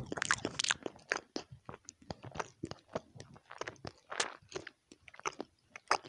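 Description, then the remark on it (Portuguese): A voice imitates a man noisily chewing food in a bedroom at one in the morning: wet, crunchy mouth sounds in quick irregular bursts, smacking and munching steadily for several seconds at moderate loudness, with no words spoken. “E ele chegava, ao invés de comer na cozinha, ele comia lá no quarto e eu escutava o barulho dele comendo uma hora da manhã.”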